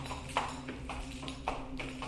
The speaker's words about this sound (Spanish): Lo curioso fue que este caballo pasó frente a nuestra casa durante tres días seguidos, emitiendo el mismo sonido de cadenas arrastrándose.